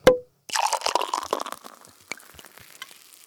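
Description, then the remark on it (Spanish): Another bottle opens with a short, sharp pop, then after a brief pause a crackling, fizzy hiss rises and slowly fades over a few seconds, with no talking. “Venga, abre otra, va.”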